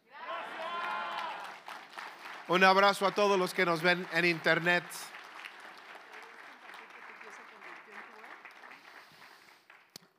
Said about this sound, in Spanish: Así es que si, si les gritamos gracias y les damos un aplauso, ellos van a oír ahorita. Una, dos, tres.